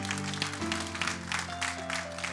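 An audience claps steadily and densely in praise of Christ, the applause sustained at an even level throughout while held organ-like chords sound underneath. No one speaks.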